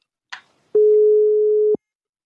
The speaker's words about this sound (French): on va essayer de l'appeler, voir s'il répond. Euh, il nous en voudra pas si on fait. Euh, alors, Road Posta. Oh, ça sonne